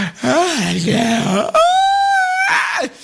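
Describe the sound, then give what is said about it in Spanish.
A person imitates a loud, exaggerated yawn: a drawn-out voiced groan that slides up into a long, strained high note, then sinks back down, alone, about three seconds long. “Pero eso sí, comiénzales a platicar algo y empiezan bostece y bostece.”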